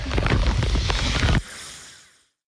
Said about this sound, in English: I'm not sure if this can be heard or not, but a torrential downpour has started. We're 12 miles in. It is relentless.